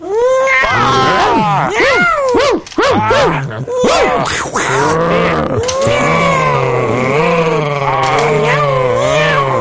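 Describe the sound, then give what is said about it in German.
A person imitates a cat, producing a long run of loud, wavering meows and yowls with rising and falling pitch, some short and choppy, others drawn out into sustained caterwauling. “Na gut, dann miauen.”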